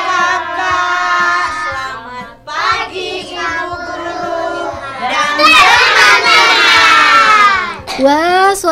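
A group of young preschool children from PAUD Ora et Labora shout together loudly and enthusiastically in the morning, their high voices rising in sustained, overlapping cries that swell toward the end before a brief pause and another burst.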